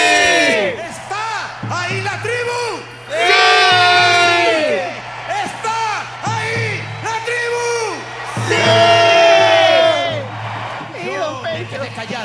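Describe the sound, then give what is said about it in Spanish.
A crowd, addressed as the tribe, shouts and whoops together in response to a call, loud overlapping bursts with voices rising and falling in wild, high-pitched cries that swell twice into peaks, over a steady low hum. “Llamé a la tribu, a la tribu perdida de la que procedemos, y respondieron.”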